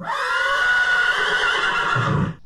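A horse gives a loud whinny lasting a couple of seconds, a high, wavering cry with strong harmonics that tapers off abruptly at the end.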